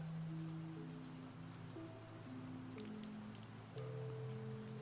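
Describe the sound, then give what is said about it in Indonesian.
Light rain pattering steadily on a train window, with scattered soft droplet taps against the glass, over a low sustained musical drone that continues throughout. “Rintik hujan turun perlahan yang bulirnya bergantian membasahi jendela.”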